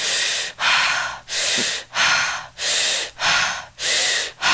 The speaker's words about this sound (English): one is um, breathing in through the mouth and out through the mouth, and it's almost like holotropic breathing. Right. If you've heard of that, but it's that, and I'm breathing loudly so people can hear, but.